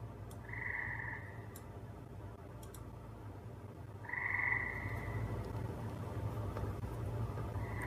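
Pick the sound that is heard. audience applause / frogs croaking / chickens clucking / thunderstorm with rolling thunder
frogs croaking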